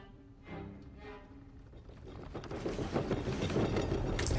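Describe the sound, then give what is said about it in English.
A freight train rumbles past, its rattling clatter building steadily from a muffled start to a loud, dense roar, with a couple of brief tonal hums early on. “There's this freight train coming through.”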